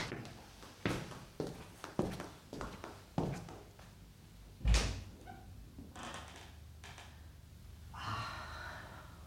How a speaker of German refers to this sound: Sie öffnet die Tür zur Terrasse.